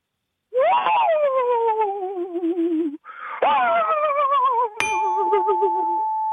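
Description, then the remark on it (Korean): A person imitates a rural dog howling at dawn with long, wavering cries that rise sharply and slowly sink. There are three loud howls in quick succession, with a brief pause after the first. “이 시골 개소리 하나 있어. 시골 새벽에 우는 시골 개소리.”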